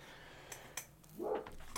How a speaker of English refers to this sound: dog in the background, right? I can, I can.